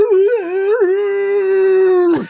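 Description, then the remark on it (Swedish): A single voice imitates a wild Tarzan-like yell that a film character gives when he jumps on someone in the first scene, with the murder: a loud, wavering cry that settles into a long held note for about two seconds, then breaks off abruptly. “Ja, det låter som en jävla Tarzan.”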